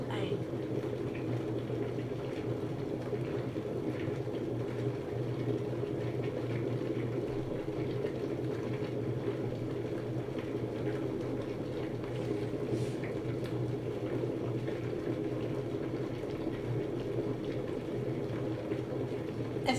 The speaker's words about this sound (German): warte natürlich immer, bis sich das Gerät von selber ausgeschaltet hat. Und dann, wenn ich vom Wasserkocher nichts mehr höre, dann gehe ich hin, hole das Wasser und gieße es dann